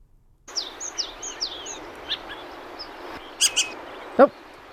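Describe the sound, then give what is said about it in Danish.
A citrine wagtail calls in a string of short, high chirps over a steady background hiss, followed by a couple of louder, sharper notes near the end. “Citronlæbstjert fandme et godt bud. Er det den der? Ja.”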